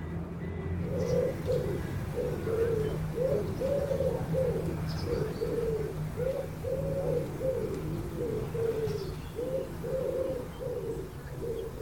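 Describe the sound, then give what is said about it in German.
Rock pigeons coo steadily, a continuous overlapping chorus of soft, rolling throaty calls repeating in a loose rhythm, with a low background rumble and no talking. “aber eine Vogelart vermehrt sich enorm: die Felsentaube.”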